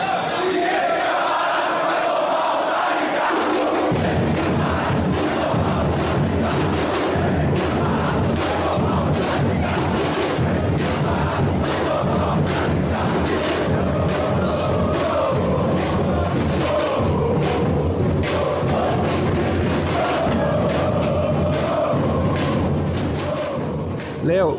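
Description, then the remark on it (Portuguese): A large crowd of Galo football fans chants a battle cry in loud, rhythmic unison, rising from a brief quieter opening into a dense, sustained roar of voices with thumping beats throughout. “E com esse, com esse palavreado, com esse grito de ordem, é, os bolsonaristas fugiram, cederam, fugiram.”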